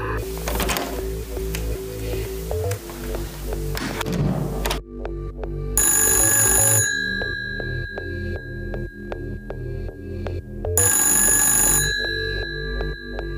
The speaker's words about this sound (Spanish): Entra en su despacho y justo suena el teléfono.